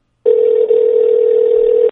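telephone dial tone

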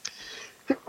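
a sneeze

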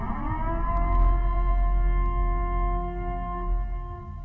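emergency siren wailing

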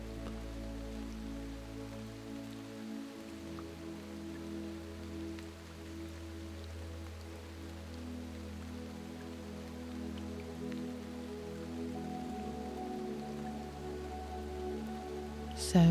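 steady rain falling

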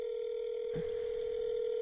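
telephone busy signal tone

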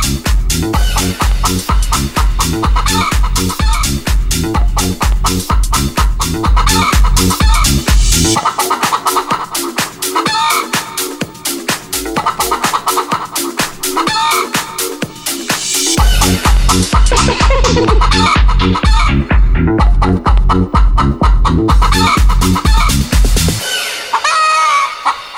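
hen clucking

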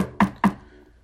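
knocking on wood

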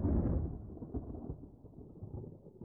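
clap of thunder

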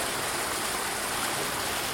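waterfall flowing

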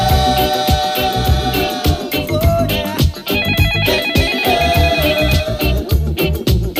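telephone ringing

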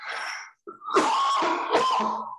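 cough

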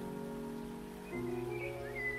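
rain falling

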